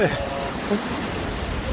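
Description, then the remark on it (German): Steady rain falls in the background with little wind, a dense, even hiss of drops that continues unbroken, with a faint voice briefly audible near the start. “ich glaube, die Lautstärke heute ist die Hölle, weil wir haben äh, zwar die tote Katze drauf und der Wind ist nicht so extrem, aber der Regen im Hintergrund und diese Flächen hier oben drüber, also ja.”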